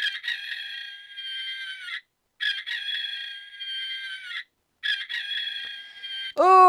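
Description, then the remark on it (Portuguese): A rooster crows loudly at 8:53 pm: three long, drawn-out calls in a row with short pauses between, and a fourth crow just starting as the sound cuts off. “Galo cantou”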